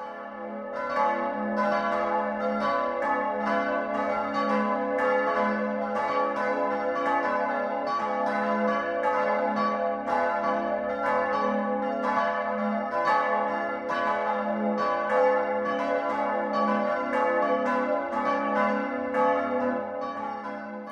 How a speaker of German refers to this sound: BR Heimat, 12 Uhr läuten. Es ist 12 Uhr. Das Mittagsläuten kommt heute von der katholischen Pfarrkirche St. Martin im schwäbischen Immersacker.